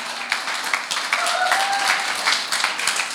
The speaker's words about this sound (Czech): Klidně si můžete zatleskat, pokud se vám to líbí.